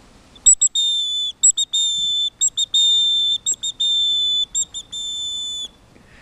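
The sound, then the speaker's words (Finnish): A bird whistle plays a great tit–style song: sharp, shrill whistled notes in quick bursts alternating with longer held tones, repeated rhythmically for several seconds with no talking. “Täällä on tintti.”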